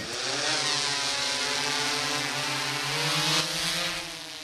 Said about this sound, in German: Eine Drohne steigt auf und fliegt über dem Wald hin und her.